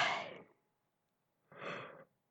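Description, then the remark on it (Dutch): A person yawns: a long breathy exhale fades out, then after a short pause a second airy, drawn-out yawning breath follows. No speech. “Oh, ik moet erover gapen.”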